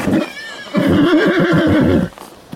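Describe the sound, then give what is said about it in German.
A horse lets out a loud whinny during a ride at about 3 to 4 km/h, a quavering, pulsing neigh that lasts over a second after a brief rustling start, then fades to quiet. No one speaks. “Na, jetzt haben wir schon so 3, 4 km/h drauf, René. Mit jeweils einem PS.”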